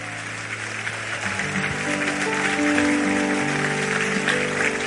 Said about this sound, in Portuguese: Diga para quem está do seu lado, você pode vencer a tua ansiedade. Aplauda ele. Aleluia.